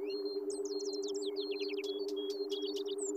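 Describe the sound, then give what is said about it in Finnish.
A wind-up artificial nightingale decorated with gold and diamonds sings in quick, bright chirps and warbling trills, with a few sharp clicks, over a steady low mechanical hum that runs throughout. No one speaks. “Kun sen veti käyntiin, se lauloi niin ihmeellisesti, että koko hovi kerääntyi sitä ihastelemaan.”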